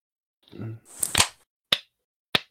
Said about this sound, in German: Ähm, eine Runde Applaus.